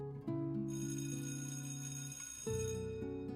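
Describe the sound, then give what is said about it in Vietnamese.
An electric bell in an exam room rings loudly and steadily in two long bursts, a sustained metallic clang with no voices around it. “chuông báo vừa reo là cả phòng liền cắm cúi và làm bài”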